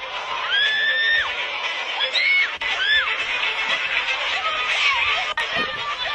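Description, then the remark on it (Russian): A large crowd of rioters shouts and yells in the street in Marseille, France, after setting fire to a large library building; overlapping high-pitched cries rise and fall over a constant roar of voices, loud and sustained throughout. “Э, что они кричат? А это в Марселе бунтари подожгли самую большую библиотеку во Франции.”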